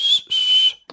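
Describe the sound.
A person whistles through a gap in their front teeth, a whistle they use to call their dogs: two loud, piercing, breathy blasts, a short one then a longer one, followed by a brief faint puff of air.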